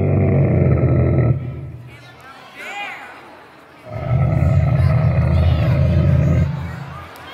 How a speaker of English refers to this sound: Camel, camel. That was the sound of a camel.